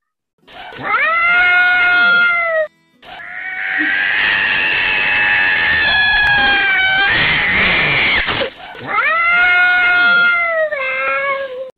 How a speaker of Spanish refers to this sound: ¡Callen esos gatos! Dejen de pelear, gatos les van a terminar echando agua.